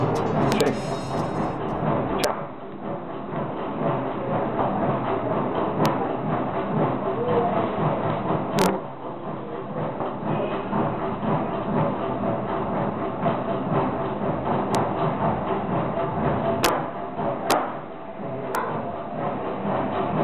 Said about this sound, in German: in dem besagter Ventilator an der Decke seine Runden drehte. Und das Ding klang unglaublich. Leider lag mein Aufnahmegerät zu Hause in Deutschland und mir blieb nur meine Digicam, um diesen Sound mehr schlecht als recht einzufangen.